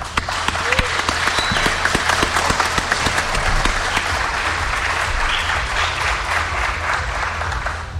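A steady wash of audience applause fills the whole stretch, dense overlapping claps with a few sharper individual hits early on, holding at an even, fairly loud level throughout.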